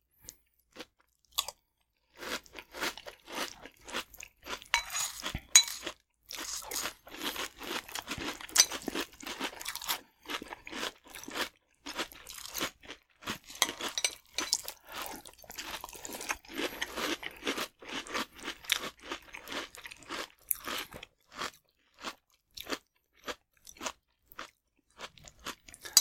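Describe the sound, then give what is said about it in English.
Crisp crunching of sugar-coated rice cereal being chewed, a steady run of sharp crackly bites filling about half a minute with no talking. “You're still very crunchy.”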